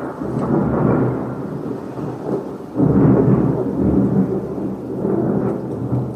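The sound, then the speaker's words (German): Deep, rolling thunder rumbles continuously, swelling louder around the middle before slowly fading, with steady rain hissing underneath. No one speaks. “Ich habe jetzt eine Pause gemacht, weil es super gedonnert hat bei dem Schokoladeriegel.”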